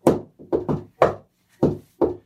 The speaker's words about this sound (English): So he knocks on the door.